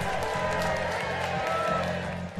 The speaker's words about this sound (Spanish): Fuerte los aplausos.